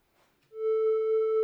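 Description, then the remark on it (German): After a brief quiet moment, a synthesizer sounds a single sustained concert-pitch A, a loud, steady, slightly buzzy tone with clear overtones that holds unchanged to the end, with no talking. “Also wenn ich zum Beispiel einen Kammerton A, zum Beispiel hier auf meinem,”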